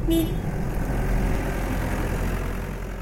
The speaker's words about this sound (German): ein Gabelstapler mit zwei Säcken Kies fährt vorbei in Richtung einer weißen, kuppelförmigen Zeltkonstruktion, die an ein überdimensioniertes Iglo erinnert